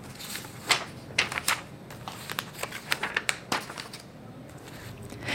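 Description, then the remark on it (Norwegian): A judge at a desk leafs through the papers of the next defendant in a folder: a run of soft, crisp rustles and flicks at an uneven pace, fairly quiet, with no one speaking. “Dommeren går bort til pulten, åpner en folder og ser gjennom papirene til den neste tiltalte.”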